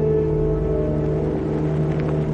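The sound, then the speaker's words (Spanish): A car engine starts with a steady, low rumbling drone and a faint whir, holding an even loudness throughout as the car pulls away and passes under the tunnel of an elevated train, with no voices. “Arranca el coche y pasa bajo el túnel de un tren elevado.”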